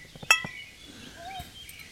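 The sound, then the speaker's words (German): Glass bottles knock together once in a quick, bright clink as a toast, followed by faint, scattered background sounds. “Prost, jo, Prost.”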